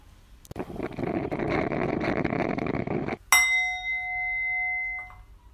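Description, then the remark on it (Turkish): A bell is struck once after a few seconds of steady rushing noise, its bright, high metallic tone ringing on and slowly fading, with a faint second touch near the end. “Çanlar SSK maaşı için çalıyor.”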